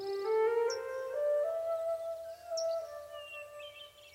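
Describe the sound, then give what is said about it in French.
A bird sings alone in long, clear whistled notes that glide slowly upward, with a few brief high chirps scattered over them, soft throughout. “Dans ces merveilleux chants des oiseaux qui renaissent de génération en génération, quelle est la part de ce qui se transmet et quelle est la part de ce qui s'invente”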